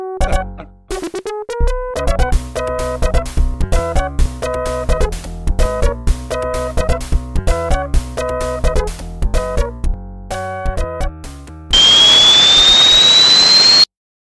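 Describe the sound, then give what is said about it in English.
Retro 8-bit video game sound effects: a fast run of bright, buzzy electronic beeps in a choppy melody, ending with a loud noisy burst and a rising whistling sweep. “that sounded like the sound effects from one of those old 8 bit games”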